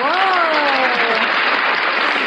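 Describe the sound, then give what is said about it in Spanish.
Steady, dense applause from an audience fills the whole moment at a loud level, with a voice briefly calling out over it near the start; the audience applauds on request at the opening of a live broadcast. “Aplausos, por favor.”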